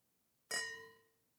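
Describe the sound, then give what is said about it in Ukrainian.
Wine glasses clink together once in a toast, a bright, sharp strike followed by a clear ringing tone that fades over about half a second, with no talking. “Нехай сипляться вподобайки, так як дзвін цих келихів.”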